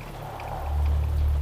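A steady wash of falling rain hisses continuously, with a deep low rumble swelling beneath it partway through. No voices, just the constant downpour.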